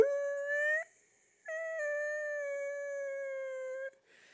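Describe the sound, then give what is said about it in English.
A voice imitates a dog screaming in the back seat of a car while someone drives: two loud, sustained, howling wails, the first short and rising, the second long and steady, separated by a brief pause, heard alone. “And it was, looking back on it, it was very sad, but it was also very stressful because, you know, you're trying to drive a car and there's a dog in your back seat going, Aah!”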